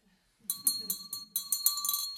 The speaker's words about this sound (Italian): Io l'unico strumento musicale che so conosco è la campana.